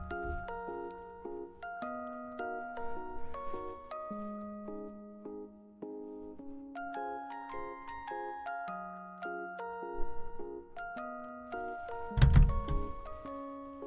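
Background music plays on its own, a bright chiming melody of bell-like notes moving in a steady, looping pattern over low tones, fairly loud throughout, with a brief noisy burst near the end.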